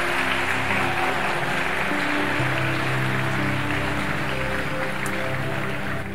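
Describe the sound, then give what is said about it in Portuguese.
A church audience claps together in sustained, dense applause for several seconds, a steady wash of many hands with faint sustained musical tones underneath. “Tá de palmas que você pode dar.”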